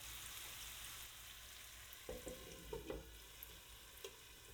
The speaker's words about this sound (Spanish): Removemos el sofrito de tanto en cuando.